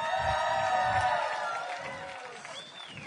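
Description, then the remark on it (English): An audience cheers and applauds loudly for a man coming out to speak, with a dense, steady wash of clapping and high whoops and shouts rising over it, easing slightly toward the end. “I want you guys to be extra loud for him, louder than his shirt.”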